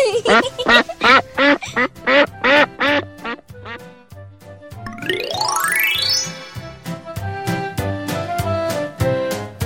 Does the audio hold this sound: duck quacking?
yes